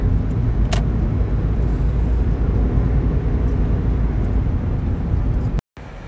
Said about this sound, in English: Um, I am in the car right now, and I'm just at the church. I'm not gonna go home quite yet.